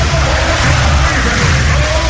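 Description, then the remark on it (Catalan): A basketball crowd in the stands of the Congost in Manresa applauds after the final ends Manresa 87, Tenerife 98, a loud, dense, continuous wash of clapping and crowd noise that holds steady for the whole two seconds without a break. “Manresa 87, Tenerife 98, els aplaudiments. Escolteu, escolteu, escolteu la grada del Congost.”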